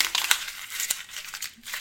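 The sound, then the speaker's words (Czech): Crackly paper crumpling with dense, irregular crinkles and a few sharper snaps, continuing for about two seconds with no voices. “Nepřestaň mi mačka papíry. Počkej, to musím zkusit.”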